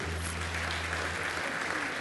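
audience applause

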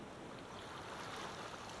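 ocean waves

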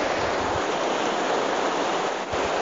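flowing stream water

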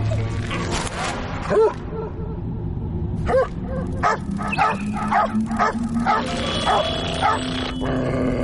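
dog barking furiously

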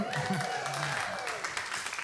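audience cheering and applauding

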